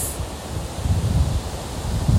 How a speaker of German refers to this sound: Ich stehe gerade vor meinem Zelt bei Windstärke 5